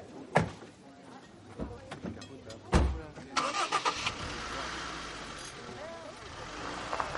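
A few sharp thumps like car doors shutting as a man and his family get into a car, then an engine cranks and catches with a couple of revs before settling into a steady rumble as the car pulls away.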